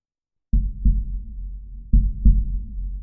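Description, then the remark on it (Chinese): A heavy, pounding heartbeat, a heart beginning to beat violently after a brief pause and pumping blood to the brain: two deep lub-dub double thumps about a second and a half apart, low and booming over a dull rumble, following a moment of silence. “短暂的停滞之后，心脏开始剧烈跳动，将大量血液泵入大脑”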